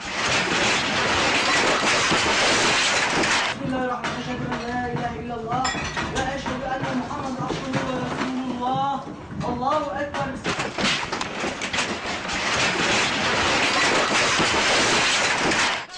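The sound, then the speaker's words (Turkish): A loud, steady roar of a very strong earthquake rumbling and shaking, recorded on a security camera or mobile phone, with objects rattling and clinking throughout; midway a man's voice speaks briefly over the din. “O kadar şiddetliydi ki deprem. O anlar güvenlik kameraları ve cep telefonlarıyla böyle kaydedildi.”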